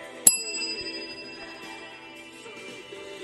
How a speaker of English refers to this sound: Ding dong.